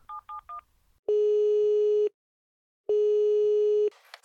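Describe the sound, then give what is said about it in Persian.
Three quick touch-tone beeps as a phone number is keyed in to call a throat specialist's medical office, followed by two long, steady ringing tones with a pause between them, heard clearly with no voices. “با مطب اون دکتر تماس گرفت.”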